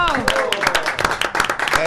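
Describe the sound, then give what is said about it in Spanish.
A burst of crowd applause at the Latina Estéreo radio station, dense clapping that stays loud throughout, with voices calling out and talking over it. “Un aplauso muy fuerte para todos.”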